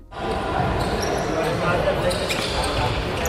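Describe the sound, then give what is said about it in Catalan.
Basketball game sounds: a ball bounces repeatedly while sneakers squeak sharply against the court, with a steady murmur of crowd and voices underneath throughout. “Sí, bàsquet, no? Bàsquet, Clar. bàsquet.”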